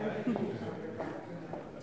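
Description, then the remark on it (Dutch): Footsteps climbing a staircase on the way to view a portrait of Jan II van Wassenaar, a few evenly spaced thuds over a steady murmur. “Oké, nou, dan lopen we de trap op.”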